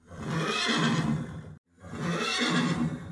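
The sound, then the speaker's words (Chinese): Red Hare, Guan Yu's horse, neighs twice, two loud, drawn-out whinnies of about a second and a half each, separated by a brief silent break. No one speaks. “赤兔马先是一直用蹄子刨着地面，接着又转了一圈，伸长脖子，一口叼住挂在栅栏外面的缰绳和轡头，啪的一声丢在关羽前面，接着又是嘶嘶叫了几声。”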